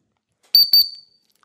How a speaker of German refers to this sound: Der Jochen hat eine Pfeife bei. Also ich habe einen Doppelpfiff dafür.